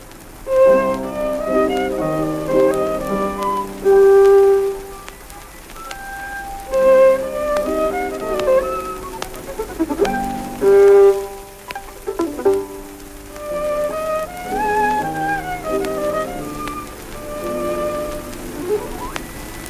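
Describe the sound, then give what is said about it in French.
A 1903 gramophone recording of Pablo de Sarasate playing solo on the Stradivarius violin that bears his name, a singing melody with wide vibrato and sustained notes, heard through a steady hiss and crackle of surface noise. “enregistrement historique de 1903, Pablo de Sarrazat lui-même sur le Stradivarius qui porte son nom”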